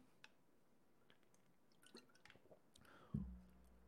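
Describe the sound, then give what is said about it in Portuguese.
Someone drinking water: soft sips, small wet clicks and swallows over a quiet background, ending with a louder low bump near the end. No one speaks. “Deixa eu beber uma água aqui.”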